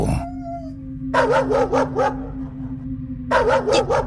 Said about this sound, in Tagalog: Walang tigil sa magkapalitang ungol at kahol ang aso sa akin. Nanginginig na ako kasi ramdam kong susugurin na talaga ako nito.